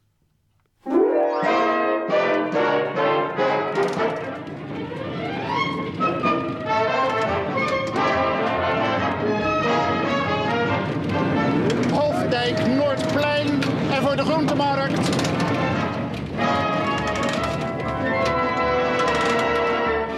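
Orchestral music starts abruptly after a second of silence and plays loudly and continuously, with rich layered harmonies and short punctuated notes throughout.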